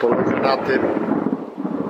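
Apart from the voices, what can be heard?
thunder rumbling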